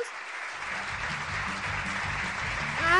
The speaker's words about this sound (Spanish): Siento yo que necesito un aplauso porque llegué al número 20, así que esperen, me voy a poner aplausos.